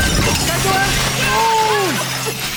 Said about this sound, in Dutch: Er klinkt het geluid van honderden vallende scherven. Alle bordjes zijn stuk en de Piet zit er verward middenin.